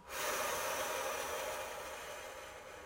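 A long, deep breath drawn in through the nose toward the belly during a relaxation breathing exercise, a steady airy rush that starts abruptly and slowly eases over about three seconds, with no talking.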